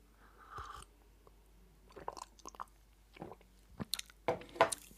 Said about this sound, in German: Ich finde, das gehört zum Morgen dazu, dass man mal einen Kaffee trinkt.